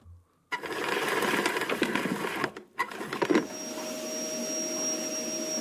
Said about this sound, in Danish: Men nu skal vi lige have fat i en støvsuger.